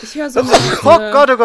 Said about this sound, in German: oh Gott. Gesundheit. Gesundheit.